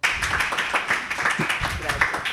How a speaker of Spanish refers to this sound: para quien pida un aplauso, por favor.